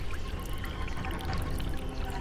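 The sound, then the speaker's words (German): Water pours and splashes steadily without pause, a dense, full rushing sound that stays fairly loud throughout, with no voices over it. “Ist das Wasser denn genießbar”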